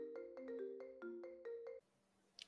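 phone call ringing tone

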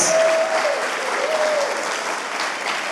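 audience applauding

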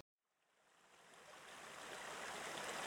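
flowing stream water

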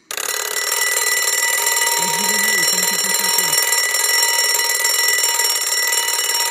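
alarm clock ringing

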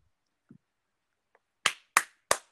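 hand clapping

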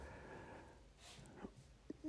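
cat and dog fighting

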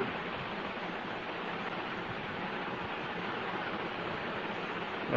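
hissing noise

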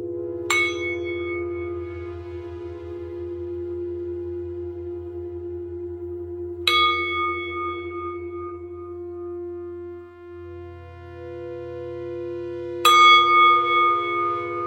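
meditation bell ringing

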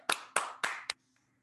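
clapping

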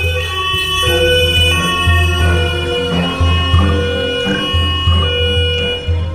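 police car sirens

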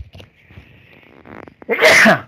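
sneeze

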